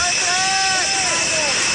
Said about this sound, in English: Now let's just listen in the Florida Palm Beach International Airport.